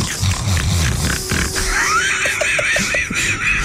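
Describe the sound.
A person imitates a pig, with a run of rough, low snorting grunts and then a rising, nasal squeal, loud and without any speech.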